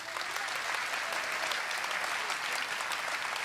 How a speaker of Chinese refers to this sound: 给他们一个掌声。